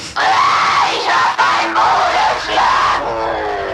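A woman screams loudly and almost without pause on recorded exorcism tapes, in long, wavering, high-pitched wails, with a few brief breaks between the cries and a slightly hoarse, strained edge throughout.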